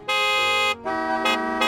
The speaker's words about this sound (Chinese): 加尔各答是印度第二大城市，那里的空气很脏，满天飞沙，车子都不看红绿灯的，喇叭声此起彼落。